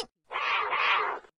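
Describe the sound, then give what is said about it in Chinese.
A baby jaguar's single drawn-out, raspy cry, sounding far away, lasting about a second, loud and steady with a slight dip midway, heard alone without any talking. “嗨，我是咔嚓照相机，我们要找美洲虎宝宝，这是美洲虎宝宝的声音。”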